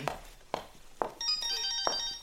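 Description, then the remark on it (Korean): A phone starts ringing partway through, a steady, bright electronic tone with high ringing overtones, after a few dull, evenly spaced knocks. One more thud lands during the ringing. No one speaks. “저는 잠깐 전화 좀 받고 오겠습니다.”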